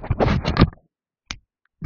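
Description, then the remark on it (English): A voice imitates two people's teeth clicking together: a rough, scraping vocal burst followed by two short, sharp clicks separated by brief silences, fairly loud. “Our teeth clicked.”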